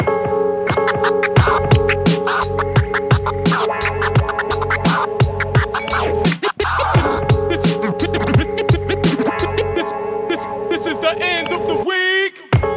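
A heavily produced hip-hop instrumental plays on its own: a steady, punchy drum beat under sustained layered synth tones, with DJ scratching and two brief dropouts where the beat cuts out.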